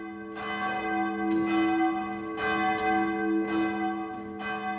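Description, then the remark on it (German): A large historic church bell from the village of Piesch tolls steadily in the bell tower of the church of St. Johannes Evangelist in Sulz am Neckar, Baden-Württemberg. It is struck about once a second, each rich ringing tone sustaining and overlapping the next, fairly loud, with no voices. “Die Glocke aus Piesch hängt seit vielen Jahrzehnten in Baden-Württemberg im Glockenturm der Kirche St. Johannes Evangelist in Sulz am Neckar.”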